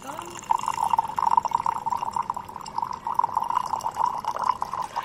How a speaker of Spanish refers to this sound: Conseguida la temperatura deseada, se vierte el agua en la tetera con las hojas de té y se deja reposar unos minutos antes de servir.